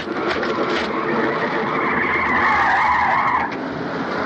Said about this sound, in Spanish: Llega un coche.